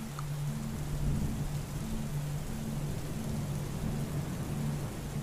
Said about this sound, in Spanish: Y empieza a llover un poco más.